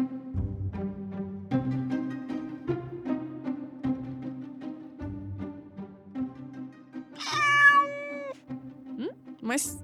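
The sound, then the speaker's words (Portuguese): A cat stuck on a branch of an avocado tree meows loudly near the end, a long rising and falling cry followed by a shorter one, over a backdrop of soft music with steady plucked notes. “Mas que barulho é esse? Isso é um gato?”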